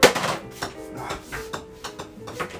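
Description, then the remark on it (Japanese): A golf ball bounces repeatedly on the face of a golf club as someone practises keepy-uppy (juggling the ball) with the club at home, making about seven sharp, hard clicks at an uneven pace over a faint steady hum, with no talking. “ゴルフクラブでリフティングの練習”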